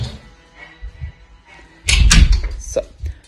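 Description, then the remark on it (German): A door is shut with a loud, thudding bang followed by a brief rattle and clunk of the latch, after a couple of seconds of quiet room noise. “Jetzt muss ich mal kurz die Tür hier zumachen.”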